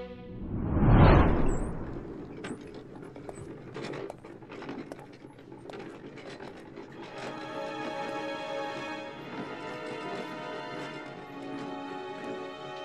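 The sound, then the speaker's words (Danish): A cleaning cart rattles and clatters as a cleaning woman nervously pushes it around at Christiansborg, with a brief whooshing swell at the start and then steady jangling and squeaky, ringing rattles with no one talking. “På Christiansborg går en rengøringsdame nervøst rundt og skubber sin rengøringsvogn. Det er hende, du kan høre.”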